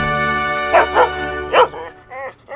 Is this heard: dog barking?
yes